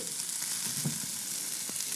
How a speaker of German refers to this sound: Knoblauch. So, ein bisschen brutzeln rühren lassen.